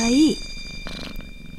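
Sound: cat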